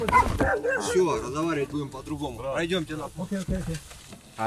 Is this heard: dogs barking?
yes